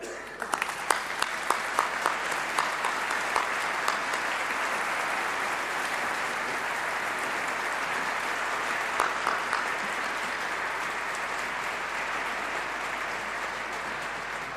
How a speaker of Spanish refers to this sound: Os invito sobre todo a vosotros, palentinos, a respaldar mis palabras con un fuerte aplauso y significando la acogida a todos.